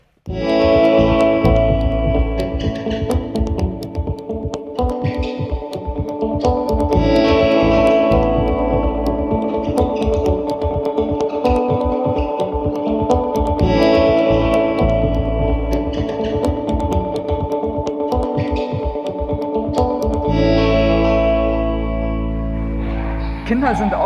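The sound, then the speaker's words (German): Loud, reverberant ambience of a large indoor hall: a dense, continuous wash of sustained, echoing tones and blurred voices that hangs steadily for the whole stretch, easing slightly near the end. “wie man hört. Kinder wir haben hier da. Spaß. Hier ja. wir sind in einer großen Halle hier.”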